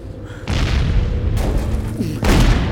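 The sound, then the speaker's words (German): Heavy explosions at a gas station go off in quick succession, three deep booming blasts roughly a second apart. Each is followed by a loud, rumbling roar that never fully dies down. No one speaks. “Das war die Tankstelle.”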